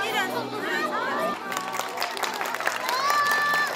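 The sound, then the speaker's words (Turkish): Applause breaks out amid lively crowd chatter at LÖSEV's New Year's ball for children fighting leukemia, with excited voices and children's calls layered over steady clapping at a busy gathering. “Alkışların en büyüğü onlar için.”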